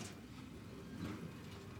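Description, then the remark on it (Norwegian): A steady low rumble of a train rolling on rails, with a constant dense drone and faint hiss throughout, no voices; a Rørosbanen train of a large red diesel locomotive and three carriages, running through the forests of Østerdalen in Hedmark. “Toget i dag består av et stort rødt diesellokomotiv og tre vogner bak.”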